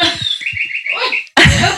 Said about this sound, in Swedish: Det är olika fåglar som piper med olika läten varje timme. Det låter som i Sverige nu under vår, på våren.